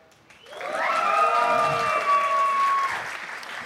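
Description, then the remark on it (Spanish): An audience bursts into loud, sustained applause for four girls, swelling quickly and holding steady for a few seconds, with a high whooping cheer ringing out over the clapping before it begins to fade. “Eh, ok, no, un fuerte aplauso para las cuatro chicas, por favor.”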